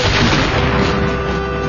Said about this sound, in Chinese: 打雷吓死人了！